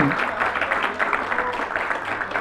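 An audience clapping together in praise to the Lord, a dense, steady wash of many hands that holds at an even, fairly loud level from start to finish, with a few voices faintly mixed in.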